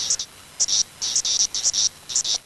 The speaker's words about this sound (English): Now here is species number two. Magicicada septendecula is making like It's kind of irregular.